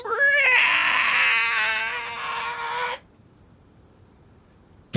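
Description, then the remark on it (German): A loud, drawn-out door creak as the door is opened, squealing for about three seconds with a wavering, tonal pitch, then cutting off into near silence. “Sie quietscht jedoch laut, als du sie öffnest.”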